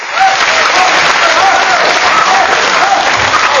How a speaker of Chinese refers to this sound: 亲爱的观众朋友们，大家晚上好！哎呦，这个，听听这掌声，这就叫人怕出名，猪怕壮。